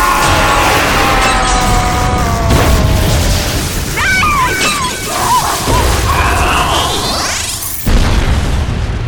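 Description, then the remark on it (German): Something shatters into shards with a loud, sustained crash amid a dense, chaotic clatter, rising whooshing tones and a sudden sharp impact near the end, all loud. “Oh, alles voller Scherben.”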